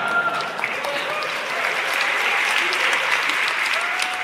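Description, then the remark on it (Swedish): A large audience at a tech developer conference keynote applauds the announced launch of the GPT store in a steady, dense wash of clapping that holds at an even level for about four seconds, with faint voices murmuring underneath. “Eller, eller skaffa sig fler entusiastiska, mer än en person som klappar i publiken synkront kanske, det kan också ett annat variant.”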